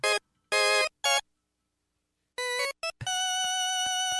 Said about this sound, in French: petit orgue merdique qu'il y a sur l'Oberheim